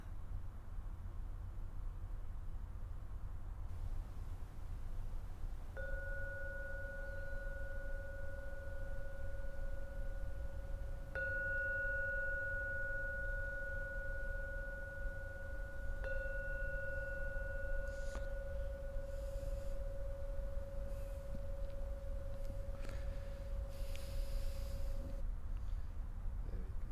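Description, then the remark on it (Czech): A meditation bell is struck three times, about five seconds apart, each strike leaving a steady, pure ringing tone that sustains and overlaps before fading out, over a low background hum. “Nyní třikrát zazvoním na zvon.”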